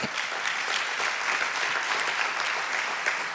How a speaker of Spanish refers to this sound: Denle el fuerte aplauso al Señor.